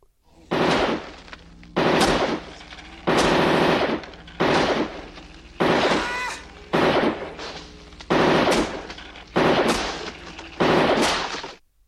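Burst-fire pistol gunshots from Robocop's gun in the film Robocop ring out in about nine loud bursts, each a rapid volley of shots, spaced at a steady rhythm with short gaps between and no voices.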